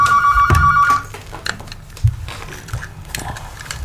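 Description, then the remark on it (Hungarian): A telephone rings once with a bright, steady electronic tone lasting about a second, then cuts off, leaving a quiet hum with a few faint clicks and rustles. “Ugyan, a telefon.”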